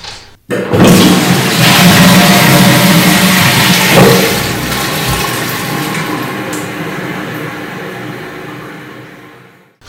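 A toilet flushes with a loud roar of rushing water that starts abruptly, then gradually fades and gurgles away over several seconds before stopping. No one speaks.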